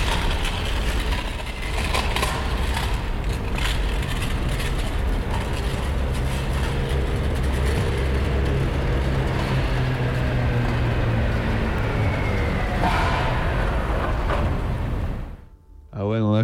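A supermarket trolley is pushed along at night with a steady, loud metallic rattle and clatter for about fifteen seconds, then the noise cuts off abruptly, followed by a brief faint scrape.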